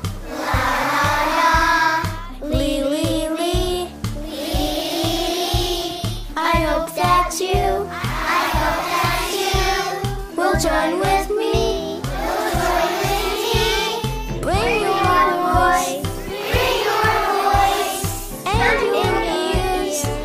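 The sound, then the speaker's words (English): A quartet of four children sings in close harmony, loud, over a steady thumping rhythmic accompaniment that continues without a break from start to finish. “Cue the choir.”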